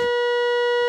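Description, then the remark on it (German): A steady, buzzy square wave tone from the third output of a Döpfer synthesizer oscillator holds at one pitch for the full second, loud with a hollow, slightly harsh edge and no other sounds. “Der dritte Ausgang ist ein Rechteck.”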